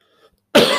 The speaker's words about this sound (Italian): scusate un colpetto di tosse.